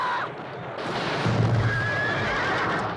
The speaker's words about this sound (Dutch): Bij een van die explosies wordt ook een paard uiteengereten. Geen namaakpaard, maar een echt paard. Gewoon doen ontploffen.